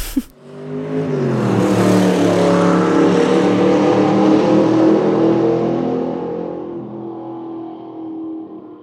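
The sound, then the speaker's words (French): A vintage Triumph collector car engine starts up, revs loudly and holds a steady, throaty roar for several seconds before easing off slightly toward the end. “Il s'avère que hum, le mari de ma sœur, avec ma sœur, ils ont une maison de campagne et hum, ils ont une, voiture de collection, une Triumph.”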